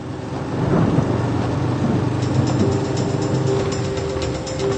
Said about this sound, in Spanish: Tief Tim bringt heftige Regenfälle und Gewitter nach Bayern. Regen, Gewitter. Das merke ich auch so.